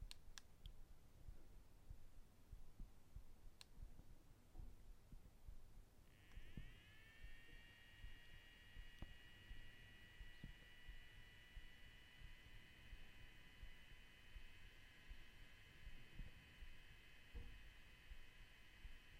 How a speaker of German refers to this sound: So, ich habe jetzt den Molino Computer Extreme am Strom dran und ich schalte jetzt äh, den Schalter an. Der ist jetzt circa na, gute 10 cm entfernt vom Mikrofon. Pass auf, vielleicht hörst du es, dass er anläuft zumindest.